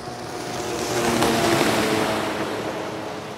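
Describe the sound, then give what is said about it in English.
A jetpack turned into a boat engine hums steadily on a mountain lake beneath a broad rush of water and wind, swelling slightly louder midway before easing off, with no voices. “There they swooped around the peaks and dropped down by a mountain lake to test the boat mode that turned the wheels into skis and the jetpack into a boat engine.”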